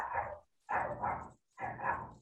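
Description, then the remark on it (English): A dog barks three times in quick succession, each bark fairly long and full and loud, with short pauses between them and no talking over it. “see the dogs agree”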